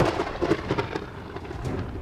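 Steady heavy rain pours down in a dense, continuous hiss, with a low rumble of thunder rolling underneath throughout; no voices are heard.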